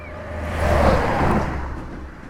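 A steady, low rumbling of a train rolling along the tracks, swelling slightly in the middle, with a deep droning hum beneath; no voices, just the continuous mechanical roar.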